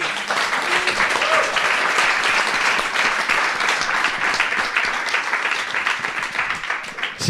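A crowd applauds steadily for several seconds, a dense, even wash of many hands clapping at a fairly loud level, with a few brief voices faintly mixed in near the start.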